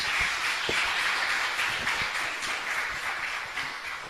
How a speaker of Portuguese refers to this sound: Uma salva de palmas, né, gente?